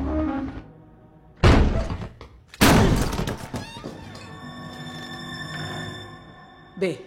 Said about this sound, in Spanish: Patricia le abre la puerta a Ana.